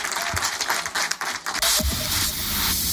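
Sustained applause from a studio audience, dense and steady clapping that swells louder midway and continues evenly to the end, with no voices over it.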